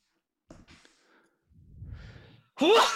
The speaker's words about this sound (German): Gesundheit. Gesundheit.